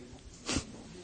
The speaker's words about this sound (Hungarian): Egészségedre.